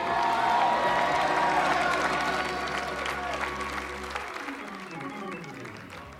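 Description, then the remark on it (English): An audience applauds and calls out in a dense, steady wash of clapping and voices, over sustained low musical tones that cut off partway through while the crowd noise carries on. “I hope Elkhart's shouting because they sure not helping me in here.”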